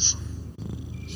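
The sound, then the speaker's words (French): A voice imitates a purring cat, producing a low, steady, rumbling purr that rolls on evenly for just over a second, moderately loud, with a brief breathy hiss at the start. “c'est le chat qui vient de te dire de quoi?”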